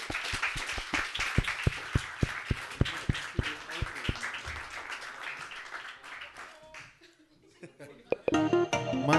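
A live show audience applauds a prize winner steadily for about six seconds, with sharp individual claps standing out above the dense patter, then the clapping fades and a brighter tonal sound rises at the end.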